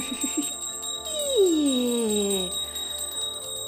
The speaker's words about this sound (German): da helfen auch so die Glockentöne.